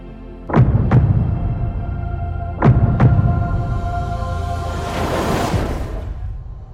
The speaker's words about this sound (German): Ich höre ihren Herzschlag. Sie ist so nah. Und wie klingt ihr Herzschlag?